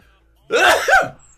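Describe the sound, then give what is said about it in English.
A single loud sneeze from a person with a sinus ailment bursts out with a breathy, voiced rush lasting about half a second, then quiet returns. No one speaks. “Bless you.”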